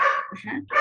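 A dog barks twice in quick succession, loud and close, with a lower muffled sound filling the brief gap between the sharp barks.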